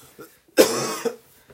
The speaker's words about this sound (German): Gesundheit. Kann man nämlich auch Darf bei Husten sagen